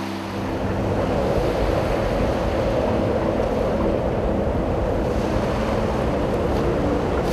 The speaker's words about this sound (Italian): Il cielo si riempiva di nuvole, il vento soffiava da tutte le parti e le onde colpivano il molo con la forza di un fulmine.